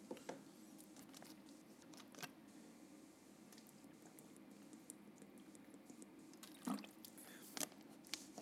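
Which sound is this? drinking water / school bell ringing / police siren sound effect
drinking water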